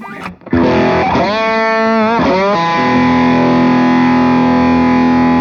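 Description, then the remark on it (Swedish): Heavily distorted slide guitar, a Strat-style guitar with gold foil pickups, plays alone and loud, with notes gliding up and down before settling into a long sustained, buzzing tone. “Jag slidar ut oss då.”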